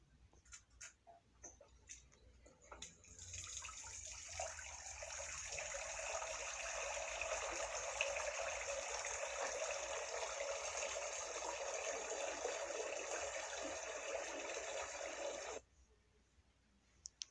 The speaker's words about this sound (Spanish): Tercero, antes de cada comida me lavo las manos.